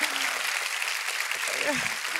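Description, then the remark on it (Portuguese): An audience at a TV talk show broadcast across Brazil applauding, a dense, steady wash of clapping that holds at an even level for about two seconds, with a faint voice rising briefly near the end. “É o primeiro programa que começa com monólogo, tem banda, entra um entrevistado, ninguém nunca pensou nisso antes, é muito inovador, uma salva de palmas, muito obrigada!”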